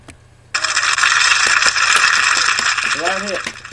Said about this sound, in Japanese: いまいち盛り上がりのない拍手だったんです